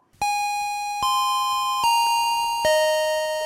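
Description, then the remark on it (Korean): Four clear, ringing chime tones struck one after another at a steady pace, shifting in pitch in a ding-dong-dang-dong pattern like a school bell, each note sustaining and overlapping the next; played on Park Myung-soo's Radio Show as the signal that a keyword is revealed. “자, 이 딩동댕동, 이 벨소리가 들리면 키워드가 공개가 되거든요.”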